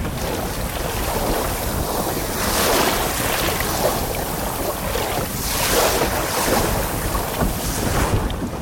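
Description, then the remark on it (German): A small Jollenkreuzer sailing dinghy cuts through choppy water, waves slapping and rushing steadily against the hull, with gusty wind buffeting the microphone. Continuous and fairly loud, no voices. “Wir genießen mal und ich lasse nur mal die Wellen sprechen, beziehungsweise das Boot sprechen.”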